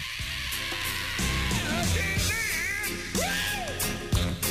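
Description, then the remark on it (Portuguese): A male singer lets out wild, wailing screams over a loud band recording, the voice swooping up and down in long bending cries against steady instruments. “E escuta ele grita.”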